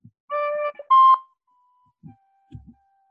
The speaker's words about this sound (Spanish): No se oye. Un poquito, al principio se oye un poco. Esta flauta era mi flauta de, la primaria, ¿os acordáis que nos hacían estudiar?